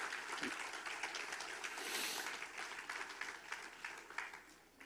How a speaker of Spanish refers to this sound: Puede dar un fuerte aplauso al Señor, nada puede detener.